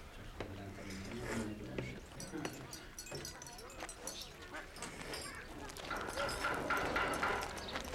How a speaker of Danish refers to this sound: Udenfor på tærskepladsen går en mand forbi med sit æsel.